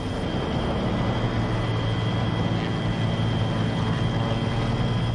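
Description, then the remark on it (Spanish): A helicopter lifts off at the surrender of Pablo Escobar in Colombia in 1991, with a steady, loud rotor and engine roar that holds at a constant level throughout, a dense mechanical drone with no voices. “Cuando el helicóptero se despega, yo me acuerdo dije”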